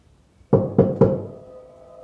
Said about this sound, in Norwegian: så banker det på soveromsdøra mi. Det første jeg tenker, er jo at det er samboeren som banker på og vil inn.